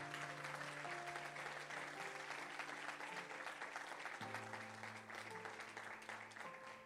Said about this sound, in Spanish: Vamos a darle tu mejor aplauso en esta tarde.